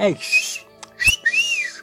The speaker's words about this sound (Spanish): ¡Qué chido chifres con la boca!